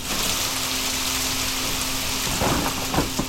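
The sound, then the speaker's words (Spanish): Heavy rain pours in a dense, steady hiss, with a low thunder rumble and a few sharper splashes swelling near the end. No voices. “El día que ocupé su lugar, llovía a mares.”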